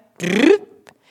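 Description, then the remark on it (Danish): A voice imitates a car engine stalling with one short, rising, strained vocal sputter that cuts off abruptly, followed by a brief click and a faint hiss. “Og I skal lige huske, at hvis jeres bil går i stå, så er det fordi jeres spænding i maven er holdt op med at virke. Så siger bilen sådan her.”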